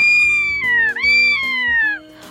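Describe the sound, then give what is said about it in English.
A bald eagle's call: two long, loud, piercing cries, each sliding slowly downward, over a soft, steady musical background. “A bald eagle.”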